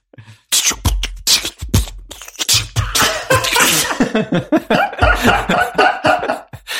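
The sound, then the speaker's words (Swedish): A single voice beatboxes, rapid mouth-made kick thumps and sharp hissing snare bursts in a steady, busy rhythm, loud and continuous for several seconds with no words spoken. “Ska vi ska jag köra en human beatbox så det blir lite...”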